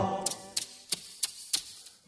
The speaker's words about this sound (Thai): แม่จิ้งจกร้องยังไง ร้อง